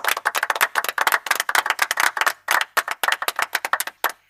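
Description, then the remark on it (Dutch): A short burst of applause from a small group for a couple's daughter: dense, irregular hand claps with sharp crisp attacks, steady and fairly loud for a few seconds before thinning out at the end. “Ja, ik denk dat dat, dat, dat op zich wel een applaus eh, mag krijgen.”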